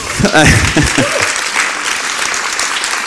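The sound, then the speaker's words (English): An audience in a church claps steadily for a speaker, a dense, sustained wash of applause throughout, with a brief burst of voices and cheering near the start before settling into continuous clapping. “I'm not used to speaking in churches where you get clapped like that, so that's lovely.”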